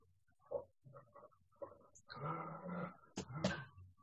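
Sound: dog growling and whimpering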